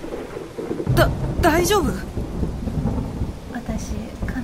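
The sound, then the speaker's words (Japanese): Heavy rain hisses steadily while deep thunder rumbles, swelling in loud bursts near the start, heard from a bicycle parking area where people have taken shelter. A person speaks briefly over the downpour. “雨やまないねそそうだねえ何この状況雨が降ってきて駐輪場に避難したら”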